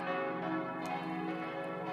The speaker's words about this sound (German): Ein Fest für die ganze Ortsgemeinschaft war es, als 2006 die Pfarrgemeinde eine neue Glocke gießen lassen konnte. Sie ist der Gottesmutter geweiht, ersetzte eine Stahlglocke und harmonisierte das vierstimmige Geläut mit ihrem Klang.